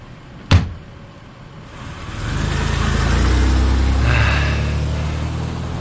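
A car door slams sharply, then a taxi's engine rumbles up and pulls away, a steady low motor drone that swells and lingers, with no voices; a chest of drawers has been loaded into the taxi.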